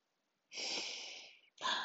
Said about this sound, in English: That's me breathing.